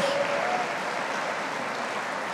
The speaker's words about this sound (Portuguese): porque eu tenho o Espírito Santo, só quem tem o Espírito Santo, aplauda a Ele, diga aleluia, diga glória a Deus.